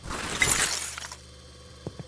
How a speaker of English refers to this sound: Everything made of glass has been shattered.